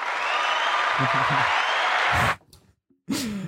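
Loud, dense applause from an audience fills the first two seconds or so, a steady crackle of many hands clapping, then cuts off abruptly into near silence before a brief burst resumes.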